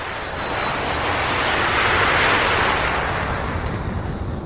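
A jet airplane roars as it takes off at 5:40, a loud, broad rushing engine sound that swells toward the middle and stays strong throughout, with no voices.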